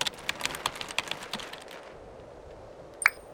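Rapid, uneven keystrokes clatter on a computer keyboard as someone types in a panic for nearly two seconds, then trail off into quiet before one final sharp click. Moderately loud, with no voices.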